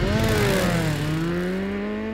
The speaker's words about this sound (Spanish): Y la moto arranca.